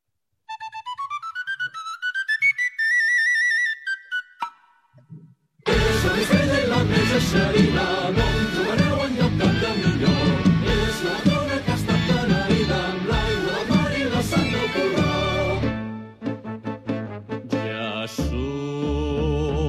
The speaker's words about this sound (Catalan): i de cop i volta comença el disc amb, amb un flaviol, no? amb la introducció de sardana.